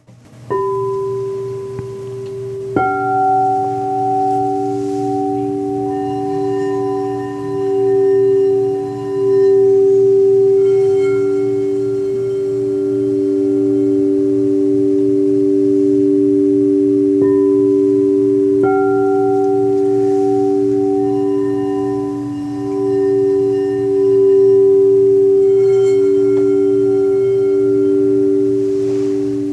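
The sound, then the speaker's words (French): Two singing bowls ring out with long, sustained humming tones, struck several times so fresh chimes bloom over a steady rubbed drone. The resonant, overlapping tones shimmer and linger with no voices. “Là, j'ai pris deux bols avec moi et je vais vous faire euh, voilà chanter et frapper ces deux bols pour euh, quelques secondes pour vous faire découvrir un petit peu le son.”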